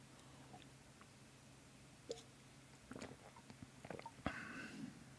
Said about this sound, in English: It's water. It tastes good. Um, you know, I normally don't drink water from a can. I can't say that there's many times that I've had just just regular water from a can.